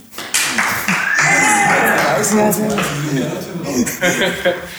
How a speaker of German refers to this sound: Hier sitzen übrigens ein paar mehr Leute im Raum. Falls, äh Krass, meine Zuschauer, ihr dürft einmal klatschen.